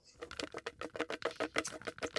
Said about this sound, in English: I put all the names in a bucket. I'm gonna shake that bucket. You'll be able to hear it. Tell me when to stop, and then I'll pull out a piece of paper.